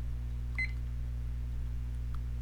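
A short electronic beep from a three-minute timer as it starts, a quick double chirp, sounds once near the start over a steady low electrical hum, followed by a faint soft blip later on.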